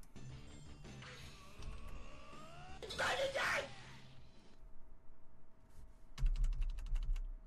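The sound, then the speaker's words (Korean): Keys on a broken computer keyboard that is not registering presses clack in quick, uneven bursts, with a louder flurry of rapid presses near the end, while faint background voices murmur underneath. “키보드 고장났어요.”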